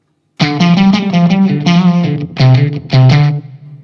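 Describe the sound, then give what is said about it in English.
An electric guitar through an effects pedal on its fat, full setting plays a short run of thick, distorted notes, then two sustained low chords that ring out and fade. No one speaks. “This is the fat and full.”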